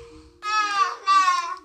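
A young boy, just up from his nap, babbles in two short, rising bursts of high, harmonic vocal sound, separated by a brief pause, with a faint steady hum underneath.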